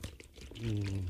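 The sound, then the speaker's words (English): A brief pour of buttermilk from a carton, a thick gurgling stream that swells louder halfway through and keeps flowing steadily to the end. “Okay, so we have our buttermilk that sounds like this.”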